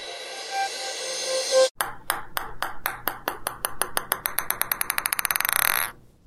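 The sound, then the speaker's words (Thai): A ping-pong ball sound effect: sharp, bright clicks of the bouncing ball come faster and faster, the hits shrinking into a quick rattling flurry before stopping, preceded by a brief swelling tone. “ปิงปองโชว์นะคะจากเสียงประกอบเมื่อสักครู่”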